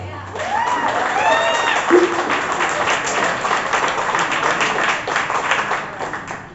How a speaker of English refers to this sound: Y'all, give it up one more time